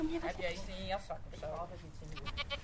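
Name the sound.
sheep or goat bleating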